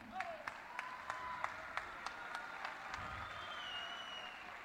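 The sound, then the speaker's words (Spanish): An audience applauds outdoors at a carnival, with sharp, evenly spaced claps standing out over a steady wash of crowd clapping and murmur. “Aplausos para, aplausos para”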